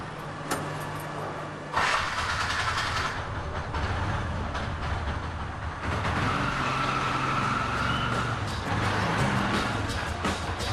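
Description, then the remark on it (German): A dense, loud wall of everyday street traffic in Delhi, India rumbles on without a break, engines and road noise piling up in a chaotic, deafening roar with sharp bursts rising out of the din. “Unübersichtlich, chaotisch, ohrenbetäubend laut und stinkend. Es ist der alltägliche Verkehrswahnsinn in Delhi.”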